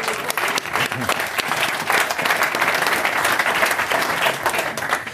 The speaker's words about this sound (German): Applaus.